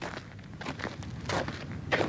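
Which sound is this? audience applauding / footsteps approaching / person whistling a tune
footsteps approaching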